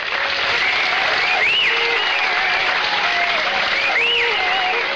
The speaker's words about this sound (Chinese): 下面掌声有请